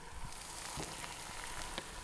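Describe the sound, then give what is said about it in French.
Whole oranges are lowered into boiling water, to be boiled for two hours: a steady hiss of bubbling with a few soft plops and splashes scattered through it, and no one speaking. “Deux heures l'eau est chaude, bouillante, donc on peut prendre nos oranges et les plonger tout entier, tel quelles, dans l'eau.”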